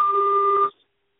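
A single steady electronic beep from a malfunctioning phone, a flat buzzy two-tone note held for under a second before cutting off abruptly into silence. It's fairly loud, with no voices.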